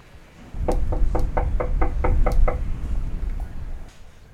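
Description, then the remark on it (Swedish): A rapid, even series of about eight knocks on the wooden front door of Janne Josefsson's house in the archipelago of Sweden's west coast, followed by quiet outdoor ambience with no voices. “Och eh, nu är jag utanför Janne Josefssons hus här så nu ska jag ringa på hemma hos honom.”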